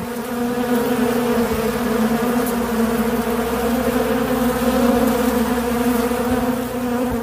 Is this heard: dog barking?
no